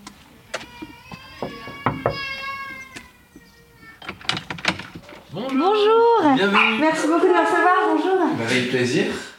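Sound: chihuahua dog barking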